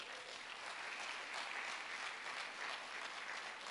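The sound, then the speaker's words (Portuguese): Sustained applause from an audience applauding the Lord, a dense, steady wash of many hands clapping at once with no pauses, filling the whole clip at an even, fairly loud level. “Aplauda ao Senhor.”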